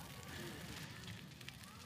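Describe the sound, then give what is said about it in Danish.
A Sankt Hans (Midsummer Eve) bonfire burns merrily with a steady, rushing roar, broken by scattered sharp crackles and pops, heard fairly quietly with faint background murmur. “Bålet, som brænder lystigt bag os, er en manifestation af den mystik, der også var omgået af Sankt Hans.”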